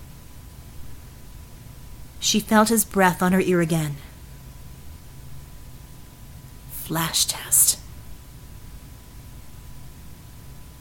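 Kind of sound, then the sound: machine, white noise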